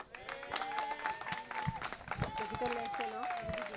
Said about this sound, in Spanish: Un aplauso.